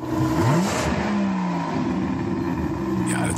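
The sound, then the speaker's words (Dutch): A current-generation BMW 12-cylinder (V12) engine revs loudly and continuously, with pitch sweeping up and down in smooth tonal bands as the throttle rises and falls, no speech over it. “Eh, tot 2023 blijft de huidige generatie uh, eh, 12-cilinder gewoon bestaan.”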